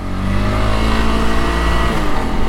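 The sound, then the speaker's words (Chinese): A truck coming up from behind on a road, its engine rumbling loudly and steadily, a low droning roar with layered tones that holds for a couple of seconds. No one speaks. “我听到后面有车声来了，可能是刚那台很凶的货车”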